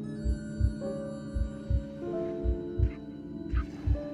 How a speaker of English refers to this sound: With his heart pounding